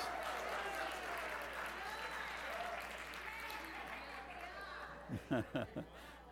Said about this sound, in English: they weren't clapping for you.